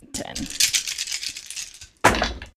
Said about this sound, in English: Roll your 10 dice for damage for your second attack. Or for accuracy for your second attack.